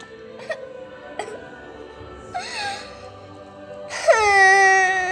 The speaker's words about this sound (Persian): و گریه کرد